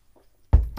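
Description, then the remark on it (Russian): After a near-silent moment, a sudden loud burst of fizzy liquid noise as someone drinks soda water, lasting a fraction of a second. No one speaks. “Выпью газировочки э, за ваше здоровье.”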